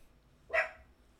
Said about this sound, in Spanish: Ay, disculpen, nadie había escuchado ladrar un perro. No, pero es que ahora él va a seguir ladrando ahí.